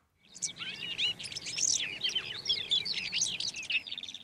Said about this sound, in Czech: Teď ovšem posloucháme švitoření nenápadného ptáka českých luk a hájů, který se jmenuje Tuhýk obecný. Ale je to tak skromný hrdina, že ani nepípne o tom, jak mu české přírodopisné názvosloví ublížilo.